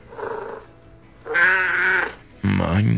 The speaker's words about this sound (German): Hä? Was ist das denn? Na klar. Ich äh, weiß zwar nicht so recht, ob das jetzt ein Kätzchen ist oder ein ähm, Baby. Aber wahrscheinlich ein Babykätzchen.